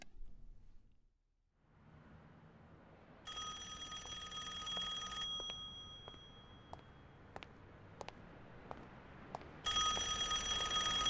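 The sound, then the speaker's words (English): A telephone bell in an empty phone booth on a lonely street rings in two long bursts, bright and metallic, over a low hum of street ambience, with a few sharp clicks between the rings. “What would you do would you answer the ring of a phone in an empty phone booth down a lonely street?”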